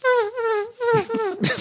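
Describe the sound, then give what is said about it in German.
A voice imitates the summer sound of cicadas with three loud bursts of high, wavering, whine-like tones, the last one rougher and breathier, with no ordinary speech. “Also mein Sommersound sind so Zikaden.”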